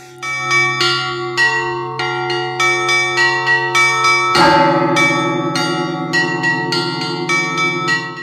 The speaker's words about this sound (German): Ich sage vielleicht dazu, äh, was man hört, äh, ein Mönch ist da im Glockenturm und der spannt sich irgendwie in so ein Gestell ein und zieht mit Händen und Füßen da diese Mechanismen, um die Glocken in Bewegung zu setzen.